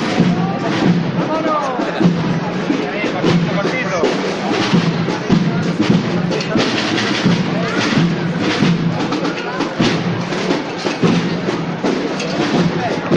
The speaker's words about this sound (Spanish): el palio, toque de tambor y vamos a ver esta, este caminar del paso de palio, la última parte de campanas hasta llegar a la revirada calle maestra.